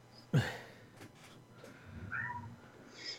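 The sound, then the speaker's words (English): A female pet cat lets out a loud, drawn-out meow, followed by quieter chirping and murmuring sounds, with no one talking. “Yeah, no, noise isn't here this week, so so we have no no noise cat, so it has to be coaster's cat.”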